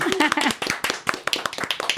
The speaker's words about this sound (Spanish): Un aplauso, hombre. Auditorio.